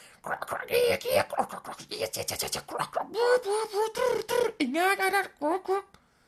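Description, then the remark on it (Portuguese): A person imitates pond frogs with a quick run of croaky, gurgling vocal bursts, fairly loud, rising and falling in pitch with no other sounds behind them. “metiam assim o gajo de olhos fechados com os fones e metiam barulhos de charco. Então os barulhos de charco era tipo.”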